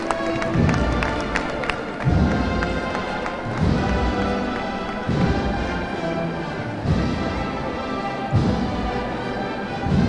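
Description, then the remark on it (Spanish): A crowd claps and cheers in a dense, steady wash of applause, with heavy rhythmic thuds pounding roughly every couple of seconds underneath, as a procession float (paso de misterio) advances slowly along Benavés Soriano, accompanied by a marching band. “Y la gente rompe en aplausos”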